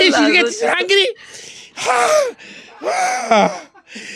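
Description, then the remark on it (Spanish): A voice imitates someone choking and gasping for air, with strained, gurgling bursts and sharp inhalations repeating over a few seconds, fairly loud. “Y empieza así la, el chorrote de sangre y el cuchillo encaja y él se empieza a ahogar en...”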